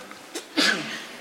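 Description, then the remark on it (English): A single sneeze: a brief catch of breath, then a sharp, breathy burst that trails off quickly. It is moderately loud, with no talking around it. “Bless you.”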